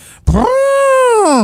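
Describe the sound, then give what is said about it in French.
A person imitates an elephant's trumpet with one loud, sustained, high-pitched vocal blast that swells, holds steady for about a second, then bends downward, with no other talking. “Ça c'est l'éléphant.”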